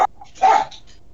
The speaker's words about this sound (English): Please excuse the dogs.